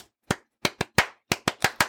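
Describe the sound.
Eight crisp hand claps beat out the syncopated rhythm of the HTS school cheer, with short pauses between groups and no voices.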